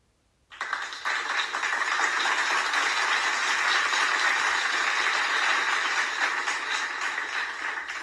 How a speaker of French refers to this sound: Des applaudissements. Autour de moi, les spectateurs, les claquements de mains. Oui, voilà, les mains.